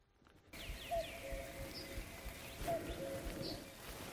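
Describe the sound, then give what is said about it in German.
A common cuckoo calls, its soft descending two-note cuckoo rising faintly above breezy outdoor ambience, while smaller birds chirp and twitter higher up in the background. “Heute ist hier der Kuckuck und der Esel, fragt sich nur, wer der Esel ist.”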